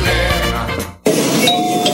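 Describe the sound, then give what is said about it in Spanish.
A doorbell rings with bright, sustained chime tones that cut off abruptly, then sound again after a brief silence, ringing steadily and fairly loud with no voices. “este timbre me trae bonitos recuerdos”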